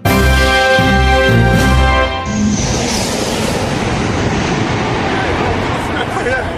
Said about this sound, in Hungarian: Így suhan több mint 600 kilométeres óránkénti sebességgel egy japán szupervonat.